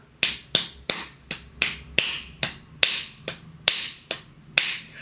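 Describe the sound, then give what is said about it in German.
A twelve-beat flamenco compás rhythm tapped or snapped out alone, about a dozen sharp clicks with slightly uneven spacing, the third, sixth, eighth, tenth and twelfth beats landing harder than the others. “Das ist aber kein Zwölfvierteltakt, sondern da wird der dritte, der sechste, der achte, der zehnte und der zwölfte Schlag betont.”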